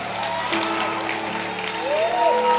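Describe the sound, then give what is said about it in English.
A church audience claps steadily throughout, a dense wash of applause with some tonal music or voices underneath and a brief rising-falling pitched tone near the end. “Can you clap your hands?”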